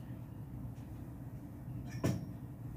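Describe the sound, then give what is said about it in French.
A single door clunks shut with a short, solid thump about two seconds in, standing out over a steady low background rumble. “Je vais ouvrir la porte.”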